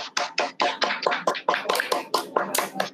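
A short round of applause: quick, steady hand claps, fairly loud and sharp, running continuously for a few seconds with no talking over them.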